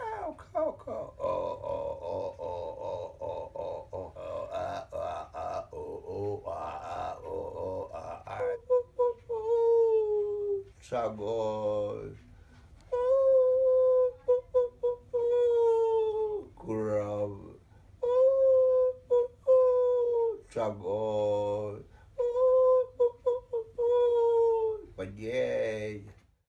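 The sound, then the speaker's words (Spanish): A Mapuche leader, shaman and poet imitates bird calls with his voice in a genre combining ancestral and colonial memory: long, wavering, howl-like tones that rise and fall in repeated phrases, broken by short, breathy bursts, with no spoken words. “quien ha inventado un género único que combina la memoria ancestral, la memoria colonial y la imitación de las aves.”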